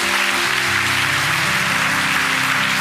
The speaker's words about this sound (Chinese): 我们大家把掌声饶归给神，好不好？